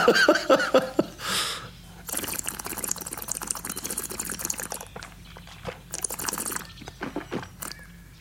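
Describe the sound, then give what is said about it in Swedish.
Champagne poured into a glass, in a few uneven bursts of splashing liquid with a steady fizzing hiss between them. No voices are heard. “Sitter man och dricker champagne”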